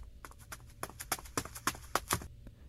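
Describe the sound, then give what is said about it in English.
A footstep sound effect of someone coming in after a knock at the door: a quick run of hard, clacking footsteps, about a dozen sharp taps in a slightly uneven rhythm, then silence, with no one speaking. “And then we have to do the footstep sound.”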